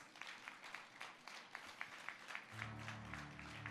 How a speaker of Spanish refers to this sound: A todos nuestros hermanos que están a través de la transmisión, le damos la más cordial bienvenida y que este aplauso de alabanza sea para aquellos que están en, sus hogares.